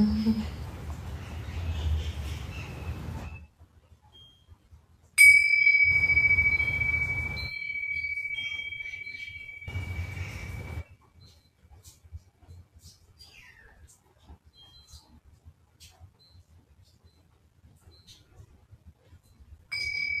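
A Tibetan singing bowl is struck once during a live sound-healing session from rainy Mexico and rings with a clear, sustained tone that slowly fades over several seconds, while soft breathy bursts come and go around it.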